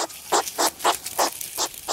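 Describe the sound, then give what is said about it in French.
A hedgehog grunts in a quick, steady series of about six short, breathy snuffling bursts, evenly spaced and moderately loud, with no talking. “profiter d'écouter ces petits grognements”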